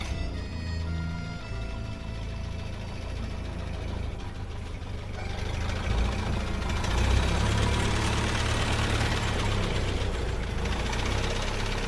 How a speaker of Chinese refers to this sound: 我们上了回台北的公共汽车。